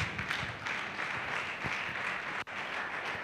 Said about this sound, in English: Church, clap your two hands for Jesus.